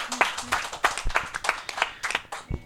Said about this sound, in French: Euh, applaudissez-le à la maison.